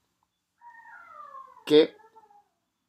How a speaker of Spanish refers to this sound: ¿Ese fue uno de nuestros perros o ese fue el perro del vecino? No, ese es Thor, el perro del vecino. Ok. Está peleando con Loki.